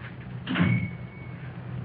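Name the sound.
door closing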